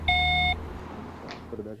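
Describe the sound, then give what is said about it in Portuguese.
A single steady electronic beep from a telephone call forwarded to a company's voicemail sounds clearly for about half a second, followed by faint background noise and a brief murmur of voice. “Tentamos contato também por telefone, está sendo encaminhada para a caixa postal e estará sujeita à cobrança após o sinal.”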